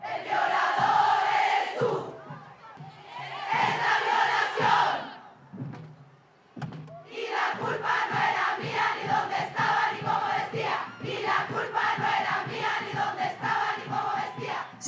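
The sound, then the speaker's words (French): A large crowd chants a Chilean feminist protest song in unison, loud, in rhythmic shouted phrases broken by a short pause before the chanting resumes and carries on steadily. “Et ce dont le mouvement a bénéficié en dernier lieu, ce sont les tests du Chili, la chanson.”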